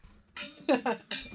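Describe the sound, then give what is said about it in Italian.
Glasses clink together in a quick toast, a few bright chimes with a faint ringing tail, and some murmured voices mixed in. “Un, eh, un detto mio, un modo di dire. Salute. Cheers.”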